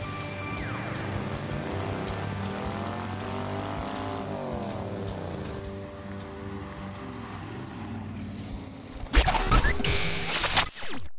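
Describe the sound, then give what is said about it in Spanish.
A De Tomaso Mangusta sports car engine runs steadily with strong low harmonic tones, its pitch rising and falling as revs change, then a sudden loud mechanical burst near the end. “El de Tomaso Mangusta. Este coche me parece precioso, me parece súper bonito. Así que también en este caso os voy a dejar a solas unos segundos con él.”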